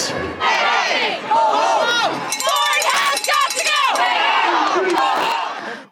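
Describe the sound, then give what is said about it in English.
A large, dense outdoor crowd of about 14,000 teachers, parents and students at Queen's Park in Toronto, Ontario, on a Saturday roars continuously, with many overlapping voices shouting and cheering, loud and steady for the whole stretch before fading sharply at the end. “I'm going to recommend that you take a listen to what I heard when I ventured out into the streets of Toronto and talked to about 14,000 teachers, parents, and students.”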